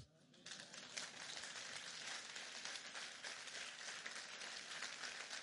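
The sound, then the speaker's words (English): An audience claps steadily to give the Lord a hand, a dense, continuous patter of many hands that swells in within the first half second and holds at an even, fairly loud level throughout. “Give the Lord a hand, amen.”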